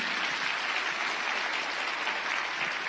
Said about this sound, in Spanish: Gracias por levantar esa mano. Un aplauso para usted. Un aplauso.